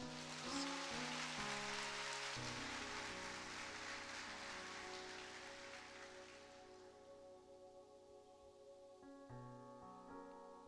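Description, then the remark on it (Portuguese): A church audience claps steadily in a dense wash of applause over sustained keyboard chords, giving thanks to those who care for the church's adolescents. The clapping thins and fades away after several seconds while the music carries on alone. “Vocês podem dar uma salva de palmas.”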